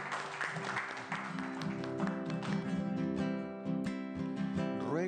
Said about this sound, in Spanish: Un aplauso a Dios, a la Virgen María, por todas las bendiciones.